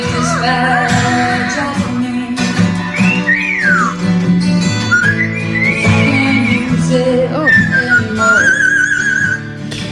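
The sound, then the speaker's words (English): A cockatoo whistles a wavering tune, its clear, pitch-gliding notes rising and falling in a recognizable melody over a steady background of instrumental music. “Name that cockatoon.”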